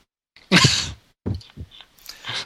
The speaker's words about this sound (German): Einen Moment mal kurz, ich muss mal husten. Ich habe mich nämlich beim Bergauffahren erkältet, glaube ich.